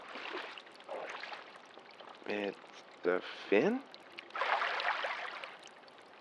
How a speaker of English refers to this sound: Walking in floodwater is really dangerous,